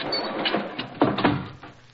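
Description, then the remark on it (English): A heavy, sticking door with rusty hinges grinds and scrapes as two people push it closed beneath a cracking archway, with a couple of short groaning creaks partway through, steady, then trailing off. “Hurry, help me close the door before the archway falls on us.”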